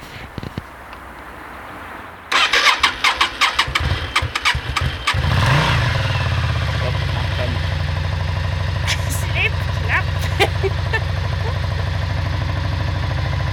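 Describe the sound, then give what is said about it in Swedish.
An engine, on a new starting attempt at home in a village, cranks with a rapid, rhythmic churning for a few seconds, then catches and settles into a steady, loud idle that runs to the end. “jag försöker starta. Så jag ska göra ett nytt försök, eller ett nytt frest.”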